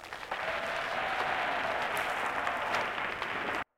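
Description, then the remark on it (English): Computer-generated applause, made by a computer learning Mozart at the end of its generated piece: a dense, steady wash of clapping with no single claps standing out, holding an even level for about three seconds before cutting off abruptly. No one speaks. “Like it generated uh-huh. some like creepy applause at the end, which was I don't know.”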